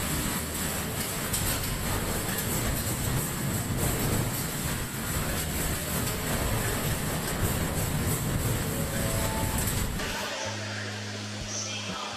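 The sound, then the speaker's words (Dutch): A metro train rumbles steadily along the rails for about ten seconds, a loud, continuous roar with a low drone, before it slows and settles into a quieter mechanical hum at the end. “Nee, we gaan in metro zitten.”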